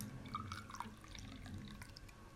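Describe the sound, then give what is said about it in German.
A short, soft trickle of liquid, Twinings black tea being poured into a cup, with faint drips and splashes over a quiet background and no voices. “man hört, dass wir hier ja, feinsten trinken. schwarzen Tee trinken.”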